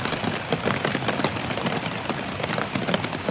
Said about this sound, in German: Äh, deswegen würde ich sagen, ähm, wir hören da jetzt mal rein. Es regnet schon mal, so viel kann ich hören.